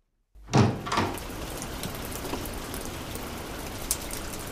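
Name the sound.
sudden heavy rain downpour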